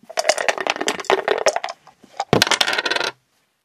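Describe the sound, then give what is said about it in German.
Dice clatter and rattle across a hard tabletop in a quick burst of clicks during a board game, pause briefly, then tumble again with another short clattering roll before settling. No one talks. “So, Kater, ich bin dran. Ah. Würfeln?”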